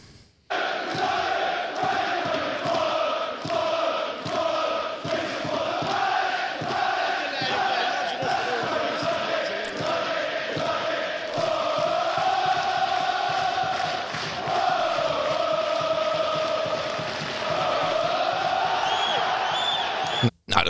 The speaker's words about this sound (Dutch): Ik weet in mijn god niet in welk stadion dit eh, gezongen wordt, maar het klinkt leuk.